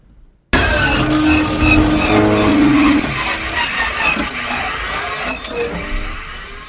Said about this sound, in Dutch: Daar zit dus een lekkende pijp uit de mannenwc in.